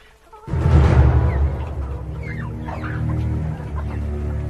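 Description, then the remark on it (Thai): A flock of jungle fowl cluck in a busy, overlapping chorus, starting abruptly and loudly, then settling into steady chatter from several birds. “ยิ่งนานวันไก่ป่าที่เคยมีจำนวนมาก ก็ค่อยๆลดลงไปทีละน้อยทีละน้อยจนพญาไก่ป่าแปลกใจ เอ๊ะ เหตุใดฝูงไก่ป่าของเราถึงมีจำนวนน้อยลงไปเรื่อยๆ”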